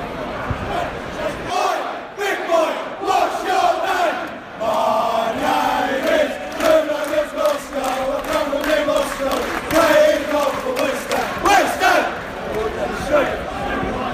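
A large crowd of travelling West Ham football fans, all standing, sings together at Vicarage Road, Watford's ground, in a loud, sustained chant, many voices blending into a rhythmic, melodic roar that swells and dips without pause.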